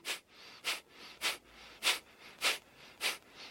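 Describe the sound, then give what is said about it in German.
Rapid, forceful Kapalabhati breathing exercise: six sharp, noisy exhalations pushed out through the nose in a steady rhythm, each a short hissing burst, fairly loud with no talking. “Es gibt zum Beispiel Kapalabhati.”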